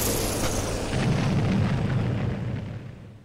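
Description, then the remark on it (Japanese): A dense barrage of rocket artillery explosions, as in the Soviet invasion of Manchuria in the early morning of 9 August 1945, blends into a continuous, heavy low rumble with crackling bursts on top, swelling midway and then fading out toward the end, with no voices. “ソ連軍は日ソ中立条約を一方的に破棄して満州に侵攻おびただしい数の兵士戦車飛行機ロケット砲で襲いかかってきたのです”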